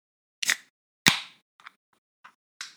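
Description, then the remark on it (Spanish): A beer bottle being opened: a couple of sharp metallic clicks, then a louder pop with a short fizzy hiss, followed by a few faint clinks. No one speaks. “Pero bueno, mientras seguimos platicando, eh, vamos a destapar nuestra cheve.”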